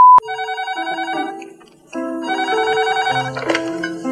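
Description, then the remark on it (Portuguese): A phone rings with a bright, electronic melodic ringtone: a sequence of steady tones that dips briefly, then resumes for several more notes. It is clear, with no one talking. “Alô? De novo? Hum. Ai, tá bom, chega. Olha, eu vou desligar.”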